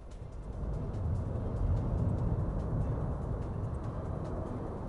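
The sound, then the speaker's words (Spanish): A volcano erupting, as carried by Tele Canaria on the 41st day of the eruption: a continuous deep, roaring rumble that swells in the first second and holds steady and loud, with faint crackles and pops flickering over the low roar. No voices are heard. “En la Tele Canaria el volcán suena así como nos va a poner ahora Sergio Montesino y lo pueden ver en esa imagen”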